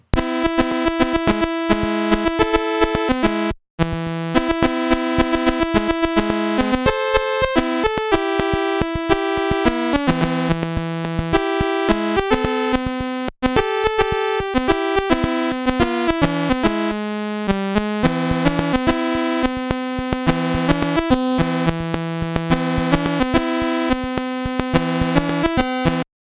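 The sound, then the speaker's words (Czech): A Commodore 64 chiptune rendition of a pop song played at the end of a video game: buzzy square-wave melody over a bouncing bass line, steady and upfront, with two brief dropouts and no voices. “A na Commodore 64 to zní takhle.”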